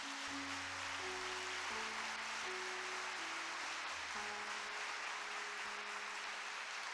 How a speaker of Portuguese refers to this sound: Tem que dar uma salva de palmas para esses 50 irmãos.